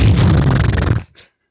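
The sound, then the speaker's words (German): A person imitates a horse's snort, a loud, rough, buzzing exhale lasting about a second, followed by a short faint breathy puff before silence. “Was, was, was machst du? Pferdegeräusche.”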